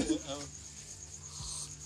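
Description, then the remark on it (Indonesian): A thin, steady insect whine like a mosquito buzzing, holding a constant high pitch throughout, with a brief stretch of voices talking at the start. “Di sini juga ada nyamuk”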